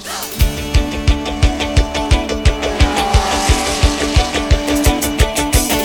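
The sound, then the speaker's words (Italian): Loud racing engines of race cars roar continuously on a track during a speed race with 100 cars, with a steady rapid pulsing beat and screeching tire-like tones layered over the rumble; no one speaks. “le automobili pronte sulla pista, oggi grande gara di velocità. 100 superbolidi nella grande corsa.”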